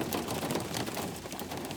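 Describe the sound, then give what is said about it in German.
Hail falls steadily, a dense patter of countless small hard ticks and clicks hitting a surface, spread evenly across the whole stretch with no voices. “Ja, aber jetzt hagelt es.”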